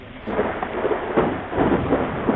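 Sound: rain and thunderstorm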